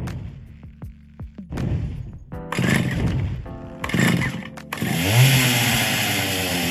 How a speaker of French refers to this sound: c'est bien le bruit de la tronçonneuse du légendaire Laserface du film Massacre à la tronçonneuse